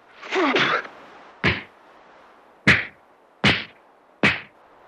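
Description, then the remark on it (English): Dull, heavy blows of a fistfight between two men: a scuffling burst, then four separate thuds spaced about a second apart, each sharp and loud against a quiet background. “The two leaped forward and struck together like oxen there was heard the dull sound of blows and of a curse pressed out between the tight teeth of one.”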